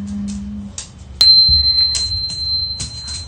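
A singing bowl is struck once during a midnight sound healing session, and a bright, high, steady tone rings on and sustains to the end, with soft rustling and low background noise underneath.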